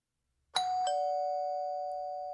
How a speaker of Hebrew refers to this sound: הוא מצלצל בדלת.